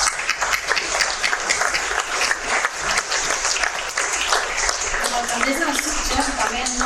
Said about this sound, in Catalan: Així que, també com ha dit el nostre regidor, ara mateix demano a tots un aplaudiment per nosaltres mateixos.